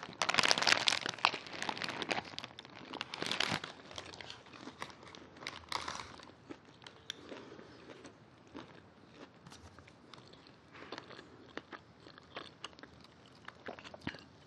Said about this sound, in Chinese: 然后今天我买的这家肯德基，就是它生菜给了很多，又很清脆。在片头的时候，你们应该多多少少有听到那个青菜清脆的声音吧？